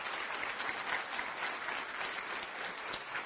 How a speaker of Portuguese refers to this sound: Por isso, por isso que Rich DeVos e Jay Van Andel, um grande aplauso para eles que criaram essa grande oportunidade.